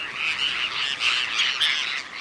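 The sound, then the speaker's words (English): A flock of Bonaparte's gulls, small, sleek, black-headed birds flocking south in late August, gives harsh, raspy, grating calls that overlap in a steady, rapid chatter, evenly loud throughout, with no voices present. “These small, sleek, black headed birds begin flocking south in August.”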